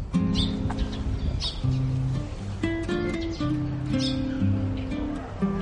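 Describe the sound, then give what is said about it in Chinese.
Early-rising small birds chirp in the trees at about 8 to 8:30 in the morning, short high tweets popping up every second or so over a busy, steady background of low tones and murmur. “现在是八点八点半，还能听到早起的小鸟在树上叫，听到了吧？”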